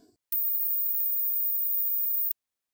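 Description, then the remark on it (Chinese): A single very high-pitched steady tone, the first of four test tones in a hearing test, sounds alone for about two seconds at a constant level, starting and stopping abruptly with clicks. “一会儿呢，我会播放四组声音，大家听听看是否都能够听到。”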